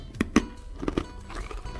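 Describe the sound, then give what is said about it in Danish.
Crisp crunching of someone biting into and chewing a small hard pebernød spice cookie flavoured with cinnamon and cardamom, a few sharp crunches early on followed by softer chewing, with no talking. “Det er lyden af mig, der spiser en pebernød.”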